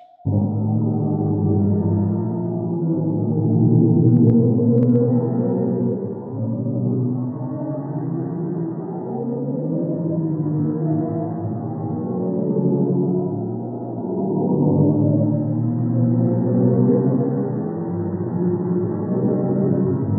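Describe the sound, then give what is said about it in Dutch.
Space sound waves pitched up 57 octaves into human hearing range, their frequency raised quadrillions of times: a deep, eerie drone of low wavering tones that swell and sag like a moan, continuous and fairly loud for the whole stretch, with no voices. “57 of 58 octaven boven hun oorspronkelijke toonhoogte, waardoor hun frequentie kwadriljoenen keren is verhoogd en ze nu hoorbaar zijn voor het menselijk oor”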